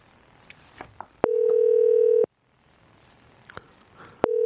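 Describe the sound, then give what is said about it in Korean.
A steady electronic telephone ringback tone sounds for about a second, falls silent, then starts again near the end, with faint clicks and soft background noise between the tones, as a phone call is placed to a participant. “전화 한번 걸어보도록 하겠습니다.”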